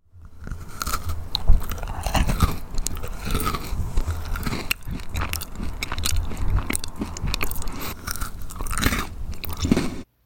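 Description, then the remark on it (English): Loud, wet chomping and crunching as someone bites and chews food, a steady run of irregular crackly bites lasting the whole stretch, with no talking. “Whether it's carving a Thanksgiving turkey, fighting over the corner piece of a brownie, or chomping down on a human femur, this essential question connects you to the cannibal next door.”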